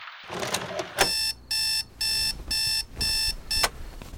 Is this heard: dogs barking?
no